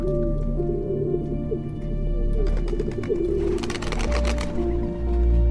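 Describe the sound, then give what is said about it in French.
Pigeons coo in soft, throaty, rolling calls that overlap continuously, with some fluttery rustling and scattered higher chirps mixing in toward the end. No one speaks. “le mépris est total pour ces oiseaux domestiqués il y a 6000 ans”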